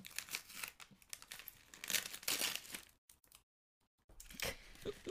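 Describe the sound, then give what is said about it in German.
Busy crinkling and rustling of gift wrapping paper held with thick tape being pulled open to unwrap a book, with bursts of louder crackles, a brief silent pause, then more crinkling. “Oh Mann, ich will es echt nicht kaputt machen. Ich bin auch wirklich so ein Mensch, der eigentlich Geschenkpapier aufhebt und wiederverwendet.”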